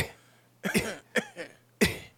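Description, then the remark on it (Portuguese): Three sharp, clipped cough bursts spaced unevenly, a voice imitating a beatbox snare by cutting off a cough, with no talking around them. “A caixa é uma tosse. Isso. Aí você só vai eliminar o. Você vai cortar a sua tosse.”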